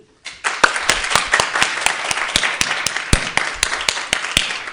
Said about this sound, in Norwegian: Jeg syns vi skal gi en flott applaus på slutten.